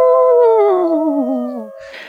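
A werewolf howl sound effect: one loud, drawn-out howl that starts high and slides steadily downward with a wavering, vibrato-like quiver, ending in a brief breathy hiss. No talking.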